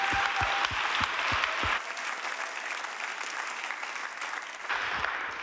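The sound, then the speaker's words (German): An audience applauds steadily for two people, dense clapping with a broad, hissy texture, a few louder claps standing out at the start and end before it settles. No one speaks. “Lasst uns ihnen einen Applaus geben.”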